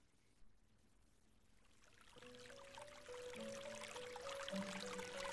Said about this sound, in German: Ich vernahm das leise Plätschern von Wasser zusammen mit einer beruhigenden Melodie